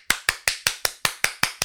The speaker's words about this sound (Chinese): 好，今天没有带音效，直接自己来鼓掌。